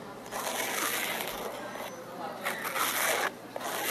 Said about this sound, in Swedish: nästa den här lila grejen, det är faktiskt inte slime utan det är bara att de drar på en grej med en kniv. Okej. Alltså det är en lila, det ser ut som en, en stengrej som de drar kniven på typ, tror jag.